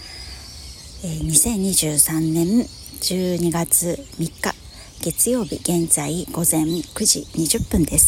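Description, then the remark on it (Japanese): Short, high bird chirps repeat sporadically in a park, with wind, faint beneath a person speaking steadily in the foreground. “えー、ジョギングに来た公園から、えー、撮ってますので、えー、鳥の声とか風の音とかが入っていると思います、えー、心地よくそれが流れてるといいなと思うんですけれどもいかがでしょうか”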